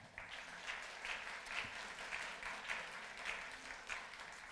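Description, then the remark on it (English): An audience claps for a guest who is asked to stand before speaking about Ethiopia and leading prayer. The applause is a steady, sustained round, a dense wash of many hands with soft rhythmic swells, lasting several seconds with no voices standing out. “People can give you a round of applause.”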